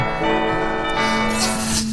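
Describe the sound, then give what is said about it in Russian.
Church bells ring with a rich, sustained metallic tone, their overlapping hum lingering while fresh strikes brighten the sound near the end. Fairly loud, with no voices. “Колокола помогают.”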